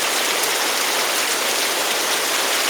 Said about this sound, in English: Oh, rain ambience.